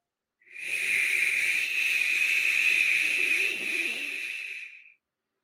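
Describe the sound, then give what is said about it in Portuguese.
A person makes a steady hissing 'shhh' with their mouth for about four seconds, imitating the sound of falling rain. The hiss stays fairly even in loudness, with no talking. “Repita o som de chuva.”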